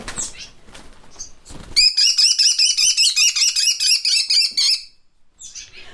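A small raptor, a North American species that hunts live mice, dragonflies and smaller birds, gives a rapid, shrill series of about fifteen sharp repeated notes lasting around three seconds, loud, after a brief stretch of rustling handling noise.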